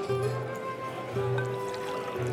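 A bartender in a saloon pours two fingers of a liquor called snakebite into a glass in a steady trickle lasting a couple of seconds, with a faint ringing resonance and no voices.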